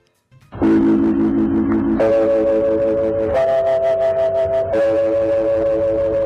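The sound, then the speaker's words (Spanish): A four-note electronically produced radio interval gong from the 1930s, linked to the 1936 signal of Radio El Mundo in Buenos Aires and later copied by the BBC, plays alone and loud, each sustained chime tone held about a second and a half at a different pitch, stepping up then settling lower. “Cinco años después la BBC hizo ese gong que, que, son cuatro notas en distintos tonos, que fue obtenido electrónicamente en aquellos años 30 y suena así.”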